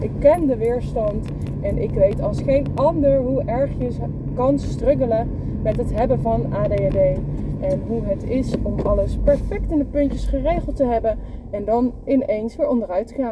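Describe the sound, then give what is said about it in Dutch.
A steady low rumble of road and engine noise inside a car runs underneath a person speaking continuously, the hum staying faint but constant throughout. “Ik eh, neem mijn podcast altijd op in de auto.”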